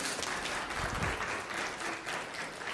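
An audience claps steadily for a man, a dense, even wash of many hands applauding at a fairly loud level, with no voices standing out above it.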